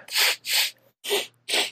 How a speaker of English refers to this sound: All right. That was good. That was a good that was a good sniffle.